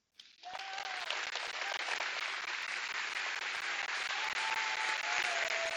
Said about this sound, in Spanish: Y yo quisiera escuchar sus aplausos de aquellos que aman la iglesia.